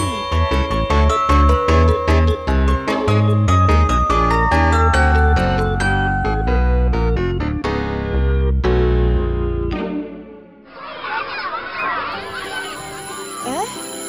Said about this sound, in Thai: เสียงออดดังแล้ว อุ้ยต้องไปเข้าเรียนแล้วล่ะค่ะ